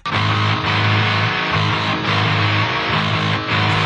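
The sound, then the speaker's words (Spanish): Loud, dense distorted electric guitars chug through sustained chords while a bass guitar thumps underneath in a steady rhythm, with no vocals. “Chequen con las puras guitarras y el bajo.”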